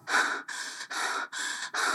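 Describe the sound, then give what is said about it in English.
Heavy, rapid panting after running, while sitting and sipping water: five harsh, breathy gasps in quick, steady succession, each rush of air separated by a brief pause, with no talking. “sat down and panted heavily while taking sips of water”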